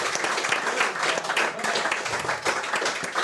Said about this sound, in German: Und ich finde auch für die Arbeit äh, kann man ruhig auch nochmal einen Applaus, glaube ich, äh, loswerden.